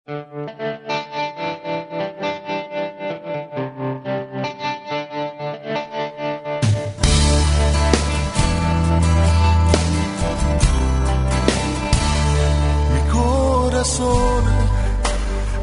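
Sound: song playing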